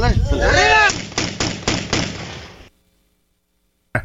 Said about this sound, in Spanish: y que suenen los balazos, que es el nuevo lenguaje que se habla en México.